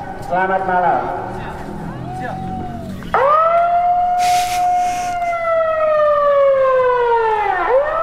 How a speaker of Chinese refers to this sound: 对，但在雅加达呢，有一个很大的广场，其实是很热闹的地方。哦。对，那就是以前留下来在荷兰时期的建筑，在那个大广场里面呢，晚上要赶人的广播，你听过吗？来听一下。